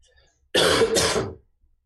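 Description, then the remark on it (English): A single loud bout of throat clearing and coughing, two rough bursts back to back lasting under a second, with silence before and after and no talking. “So I've had a bit of cough this week.”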